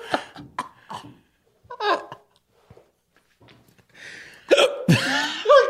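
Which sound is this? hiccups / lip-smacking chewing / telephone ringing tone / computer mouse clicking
hiccups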